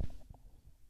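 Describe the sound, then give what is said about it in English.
A brief, low stomach growl rumbles, soft and gurgling, with a few uneven throbs over about a second and no talking. “Like I feel my stomach about to growl.”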